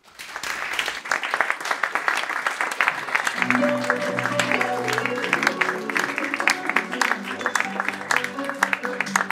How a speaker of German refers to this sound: Also, begrüßt mit mir mit einem großen Applaus